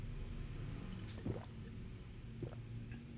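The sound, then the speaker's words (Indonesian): Two wet gulping swallows of coffee, one around the middle and another near the end, low and soft over a steady low hum, with no talking. “Nih satu teguk lagi. Satu atau dua teguk nih. Dinikmati si kopinya.”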